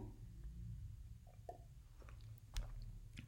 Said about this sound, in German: Jetzt habt ihr wahrscheinlich gehört, wie ich mein Glas abgestellt habe. Aber ja, ich laber so viel, da muss ich manchmal kurz ein bisschen Luft holen und was trinken.